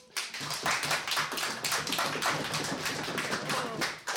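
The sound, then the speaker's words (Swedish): An audience applauds steadily for about four seconds to welcome a poet, a dense wash of many overlapping hand claps at even loudness with no voices over it. “En stor applåd.”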